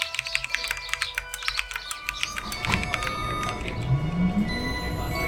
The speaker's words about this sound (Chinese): 清晨，窗外的麻雀叽叽喳喳，正在发电报给敌人。